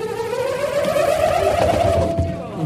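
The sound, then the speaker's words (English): A loud, continuous whirring whine from a nut spinning inside an inflated balloon, its pitch climbing steadily as it speeds up, with a buzzy rattling texture underneath. “So basically, you've demonstrated how a cello or a violin amplifies sound using a balloon and a nut.”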